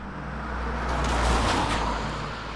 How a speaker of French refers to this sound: Laurent Ponceau traverse à toute allure son petit village de Bourgogne à bord de sa Lexus blanche il passe entre les terrains de vignes couverts de neige avant de se garer devant les portes en bois de son domaine.